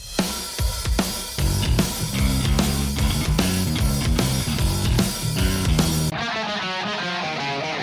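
An isolated drum track from a song recording bangs away in a loud, steady rhythm of thumping hits and crashing cymbals, with no voices, before the sound abruptly thins into a softer, duller wash near the end.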